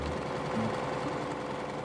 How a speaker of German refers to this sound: Der wird festgenäht am schönen Seidenstoff und dem Baumwollunterstoff und dann werden die gezeichneten Muster mit der Nähmaschine abgesteppt.